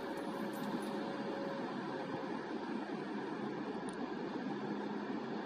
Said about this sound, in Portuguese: Tente se concentrar no barulho das ondas, no barulho do mar, no barulho da brisa.